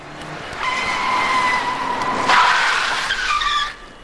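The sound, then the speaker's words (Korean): Car tires screech loudly in a long, shrill skid lasting about three seconds, the pitch wavering partway through before cutting off abruptly as the vehicle stops. A car swerving to avoid a person on a six-lane road crosses the center line and nearly collides head-on with an oncoming bus before stopping. “차 한 대가 날 피하려다 중앙선을 침범하며 맞은편 버스와 정면 충돌할 뻔했다가 가까스로 멈췄다.”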